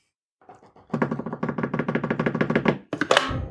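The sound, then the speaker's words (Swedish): A quick drum roll of rapid, even hits that starts softly, builds to steady loud strikes, then ends in a bright cymbal crash that rings out. “Trumvirvel tack.”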